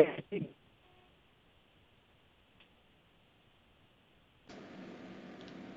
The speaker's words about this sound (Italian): No, non abbiamo visto niente perché il segnale è saltato di nuovo, il segnale del cellulare, 30 secondi di pausa